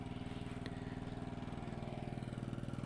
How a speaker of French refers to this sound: Ce sont de doux petits moteurs et le générateur pour un petit peu d'électricité. Bah oui, on a une ampoule et, une prise électrique dans la yurte, C'est moderne. Par contre, bah du coup, c'est un générateur euh, à essence